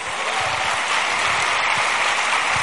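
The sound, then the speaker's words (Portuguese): Sustained applause from an audience, offered in praise of God, a dense, steady wash of many hands clapping at once, loud and continuous throughout with no voices standing out. “Glória a Deus. Palmas para Ele.”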